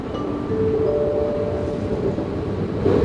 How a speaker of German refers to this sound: Fahrt mit dem Zug von Leipzig nach Güterglück in Sachsen-Anhalt.